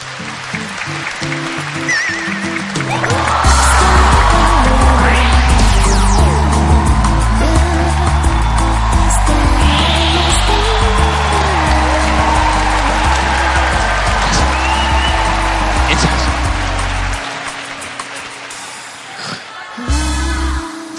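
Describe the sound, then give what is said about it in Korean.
An audience applauds to welcome a guest at a talk show recording held with the 7th DMZ International Documentary Film Festival, clapping steadily for about fifteen seconds, the dense clapping layered over loud, bass-heavy music with a stepping beat, before both fade away near the end. “박수로 환영해 주시기 바랍니다.”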